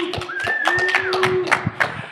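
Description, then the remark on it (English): Brief, scattered clapping from a few people on the .NET Rocks show, a round of applause for a fan club prize winner. It is moderately loud with an uneven rhythm and lasts a couple of seconds while a thin sustained tone hums underneath. “Let's give Alana a little round of applause.”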